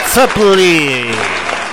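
Applause crackles steadily throughout, with a loud sustained tone over it that starts with a wobble and then glides slowly downward in pitch.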